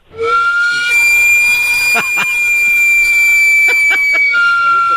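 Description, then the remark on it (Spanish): A sweet potato (camote) vendor's steam cart, the kind heard selling at night, lets out a continuous shrill whistle with a hissing edge, holding a steady high pitch throughout while a few brief clicks or knocks cut through. “Oiga, diputado, oiga este ruido, a ver si se le hace conocido y usted dice, los camotes andan vendiendo la, en la noche, y le va.”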